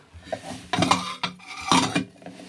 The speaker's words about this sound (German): Ich räume erstmal das Geschirr in die Küche.